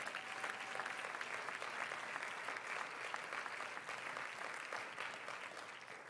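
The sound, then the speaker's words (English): An audience claps to the Lord steadily for about six seconds, a dense wash of many hands applauding together at a fairly loud, even level with no speech. “Oh, clap your hands unto the Lord one more time.”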